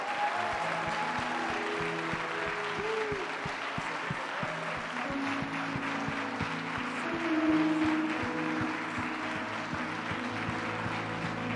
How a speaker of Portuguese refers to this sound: Eu queria que você desse o melhor aplauso e o maior brado ao Espírito Santo.